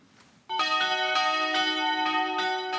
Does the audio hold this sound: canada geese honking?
no